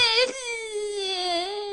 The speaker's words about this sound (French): Écoutez, un bébé, là. Ah, oh, oh ça aussi, elle fait ça des fois, hein.